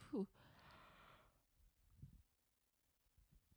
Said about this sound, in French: Excusez-moi, je baille.